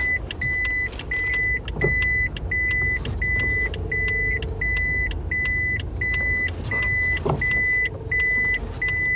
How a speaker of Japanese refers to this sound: ちょっと 動揺して駐車スペースをミスった。一個隣に止めようとしてしまう。